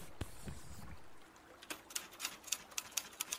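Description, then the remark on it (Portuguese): Typewriter keys strike in a steady rhythm as an old man seated at a small table types on paper, about eight crisp clacks in quick succession, heard quietly, after a few soft dull thumps at the start. “E quando se aproxima, tu percebe de costas para ti, sentado numa mesinha, um velho batendo numa espécie de uma máquina aonde coisas são escritas em um pedaço de papel.”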